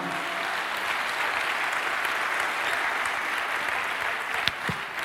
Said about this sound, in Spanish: Dale un aplauso al Señor por eso, amado hermano.